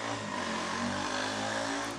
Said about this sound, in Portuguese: deixa a moto passar.